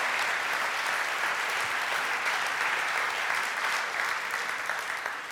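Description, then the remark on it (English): Steady applause from a crowd during a sermon, given as a round for Jesus, fills the whole stretch, a dense wash of many hands clapping at an even, sustained level without any voices rising above it. “Uh, yeah, if you applaud, applaud for Jesus because he has made it possible. Come on, another round for him.”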